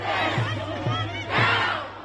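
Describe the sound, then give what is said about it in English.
A protest crowd chants in the streets of Brooklyn Center, Minnesota, after the police killing of Daunte Wright, many voices shouting together in loud, rhythmic bursts with a steady roar of the crowd underneath. “They chanted, they marched, they yelled at the cops, they held up signs reading Black Lives Matter.”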